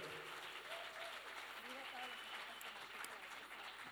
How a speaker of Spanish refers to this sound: Aplauso fuerte para el equipo que está de oración.